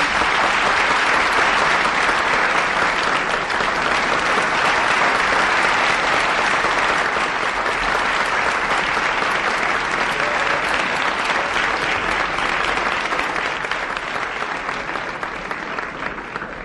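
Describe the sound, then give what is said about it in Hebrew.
Loud, sustained applause from an audience after a sung performance fills the whole recording, a dense steady clatter of many hands clapping that holds for about sixteen seconds and eases slightly near the end. “מחיאות כפיים”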